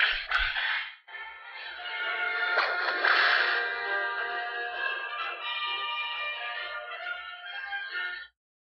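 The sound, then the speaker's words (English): A battery-powered toy whip with several settings gives one sharp electronic crack, then a tinny, buzzy synthesized tune with a steady pulsing beat plays for several seconds before cutting off abruptly. No one speaks. “so this Indiana Jones whip, it has multiple um, multiple little uh, settings on the side here. It takes regular batteries”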